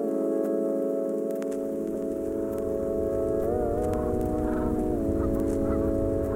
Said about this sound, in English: Across Jamaica Bay from JFK Airport, on the borough's southern edge, a more ancient migration is taking place. Wow, quite a few swans. It's actually uh, not native.